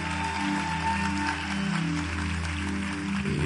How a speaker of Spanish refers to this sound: Un fuerte aplauso a uno de nuestros líderes.